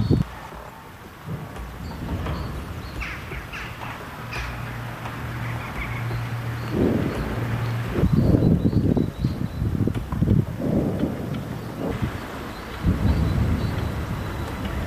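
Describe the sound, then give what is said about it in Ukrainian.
Repeated heavy booms and rumbling blasts of Grad rocket artillery fire and explosions in Avdiivka, Ukraine, coming in a rapid cluster, with faint outdoor chirps in the quieter first seconds. “Вон так зараз в Авдіївці це виходить. Скоріше за все, градів летить.”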